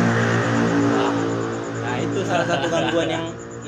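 A motorcycle engine runs with a steady, throaty drone, its pitch rising and falling slightly as it revs through the few seconds.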